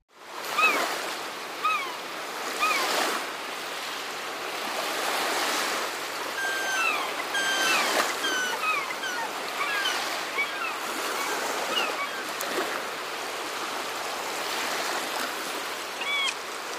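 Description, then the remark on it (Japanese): Ocean waves wash onto the shore in a steady, rolling surge, with broad swells of surf rising and falling over about seventeen seconds, and faint high bird calls chirping above the water. “海、久しぶりだね。”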